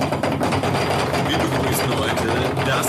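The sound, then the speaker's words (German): A voice imitates a drum roll with a rapid, continuous rolling rattle held at a steady level for about three seconds, loud. “Trommelwirbel.”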